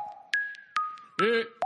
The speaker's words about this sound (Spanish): Perdón, tengo hipo.